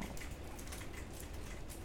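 Steady, dense rain beats against a house in Tokyo on a day of heavy rain, a continuous hiss of countless drops with faint irregular patters and no one speaking.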